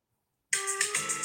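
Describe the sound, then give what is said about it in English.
A phone ringtone abruptly starts after a brief silence, a bright electronic melody with steady tonal notes and pulsing high chimes, fairly loud, with no talking. “Get that phone.”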